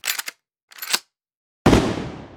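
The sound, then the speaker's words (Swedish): Two short clattering bursts, then a single loud blank rifle shot fired outdoors straight up into the air from the steps by a man in a lighthouse keeper's uniform as a midsummer salute, its sharp crack rolling off into a long fading echo. “Farfar står med sitt gevär i fyrmästaruniform på trappan och skjuter av ett löst skott rakt upp i luften.”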